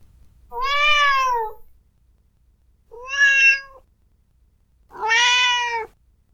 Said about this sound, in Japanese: なんか猫派の方結構多いですよね。ということで、猫ちゃんを期待していらっしゃった方がいらっしゃいましたので、ちょっと猫の声で癒されてください。